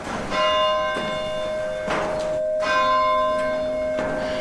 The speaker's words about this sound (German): Hier werden 60 Bronzeglocken mit Klöppeln angeschlagen.